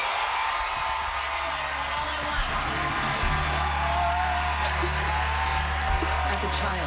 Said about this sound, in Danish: Kæmpe jubel og nærmest konfettirør.